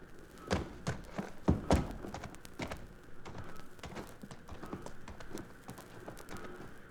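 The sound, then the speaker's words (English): A cluster of heavy horse hoof thuds and shuffling steps as riders dismount lands in the first two seconds, then scattered softer knocks continue over a steady low background rumble. “Down off that horse and let's go.”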